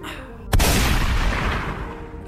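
A single loud gunshot sound effect cracks out after a short pause, then leaves a rumbling, noisy tail that fades slowly. No one speaks.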